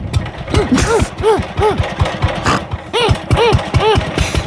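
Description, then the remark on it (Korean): A power tiller driven by an elderly man chugs with a loud, steady putt-putt knocking, its rapid thumps overlaid by a repeating rising-and-falling whine that cycles several times. “이상한 소리를 내는 할아버지가 운전하시는 경운기에서 할머니 한 분이 내리셨어요.”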